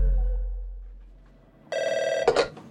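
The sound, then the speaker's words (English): A telephone rings loudly at a real estate office, a single bright, buzzing burst of trilling bell tone that starts abruptly after a quiet moment and rattles briefly near its end. “it's my first day answering phones at Home Shellers Real Estate.”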